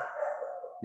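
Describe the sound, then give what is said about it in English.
A dog gives one drawn-out bark that slides slightly downward, fairly loud, lasting under a second with no one talking. “that's our dog, by the way.”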